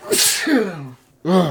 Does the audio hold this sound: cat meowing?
no